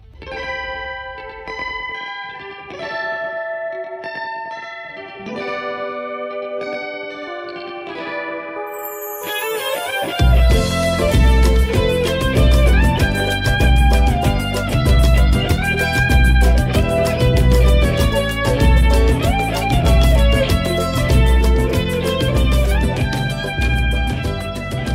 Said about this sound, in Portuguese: E ao som de pagode japonês, que eu não faço ideia que seja